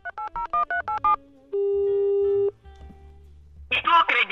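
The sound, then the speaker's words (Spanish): A phone number is dialed on a keypad to call someone: a quick run of about seven evenly spaced keypad beeps, followed by a single sustained electronic tone lasting about a second, then a brief burst of muffled, noisy sound. “Bueno, vamos a llamarlo a ver qué dice el pana. Vamos a marcar por aquí.”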